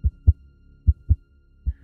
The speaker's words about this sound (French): J'ai couru sur la pointe des pieds jusqu'à la porte d'entrée. À ce stade, mon cœur battait la chamade.